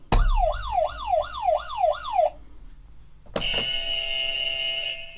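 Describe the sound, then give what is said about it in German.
Two quiz buzzers on a table are tested one after the other: first a loud warbling, wavering electronic tone for about two seconds, then after a brief pause a harsh, steady buzz that holds to the end. “Wollen wir eure Buzzer einmal testen?”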